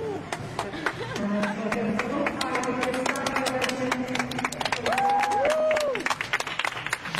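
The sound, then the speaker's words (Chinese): A large arena crowd applauds steadily as gymnast Chusovitina, her name just announced, takes to the competition floor, dense overlapping clapping sustained for about seven seconds at an even loudness, with an indistinct voice rising faintly above the noise now and then. “现场念出了丘索维金娜的名字，她在掌声中登上赛场。”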